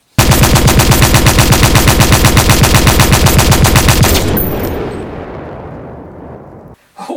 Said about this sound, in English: Well, uh, I'm sure you're not allowed to have that um, uh, automatic weapon in this country. Diplomatic immunity. If you say so. But um, uh, oh, I do like the smell of cordite